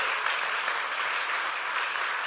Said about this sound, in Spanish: Démosle un aplauso fuerte al Señor. Es increíble.